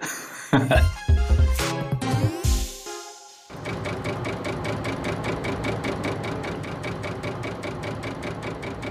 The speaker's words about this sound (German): Was wir da gerade gehört haben, war der erste Computer mit Rechen- und Speicherwerken, die sogenannte Z3 von 1941, benannt nach ihrem Erfinder, dem Bauingenieur Konrad Zuse aus Berlin-Wilmersdorf.